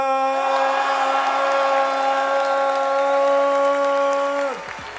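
An audience applauds and cheers loudly after the winner of a contest is announced, with dense clapping throughout and a steady held tone riding over it that slides down and fades near the end as the clapping thins.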